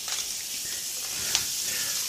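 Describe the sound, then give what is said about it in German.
Steady, hissing sizzle of food browning in the residual heat of a pan after the heat is switched off, with a brief scrape or clink of stirring partway through; no one speaks. “Jetzt kann es hier noch in der Resthitze der Pfanne ein bisschen bräunen.”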